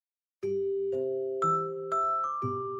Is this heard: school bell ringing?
yes